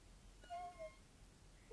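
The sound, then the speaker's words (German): A cat gives a faint, plaintive meow, two short wavering cries close together, followed by the start of another at the end, wanting to be let out through a door. “Ich liebe nur noch mein Baby. Gell, mein Chat?”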